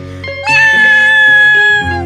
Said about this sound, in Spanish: Y ahora ese maullido tan largo qué significa